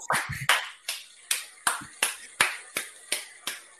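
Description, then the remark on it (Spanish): A single pair of hands claps about ten times in a steady, fairly quick rhythm, each clap sharp with a short ringing decay, and no voices. “Mira, un aplauso para la pájara pinta, de verdad.”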